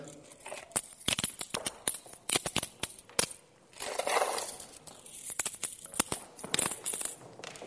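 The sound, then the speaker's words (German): Coins spill and clatter from a person's hands, one open and one closed in a fist, in a quick series of bright metallic clinks, fairly loud, with a brief pause before another jingling tumble of coins settling. “In der einen Hand sind ein paar Münzen übrig geblieben, weil sie so stecken geblieben sind auf der Faust.”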